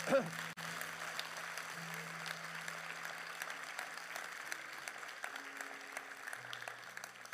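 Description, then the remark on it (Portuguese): An audience applauds during a sermon in a steady, dense wash of clapping that holds at an even level for about seven seconds, with low sustained keyboard notes humming beneath it. “Oh, se vamos aplaudir, vamos aplaudir como deve ser.”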